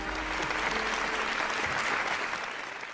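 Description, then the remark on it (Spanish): Steady applause from a crowd, a dense wash of clapping that holds at a fairly even loudness for about three seconds before easing off slightly at the end. “Aplausos transformados al nuevo viejo político.”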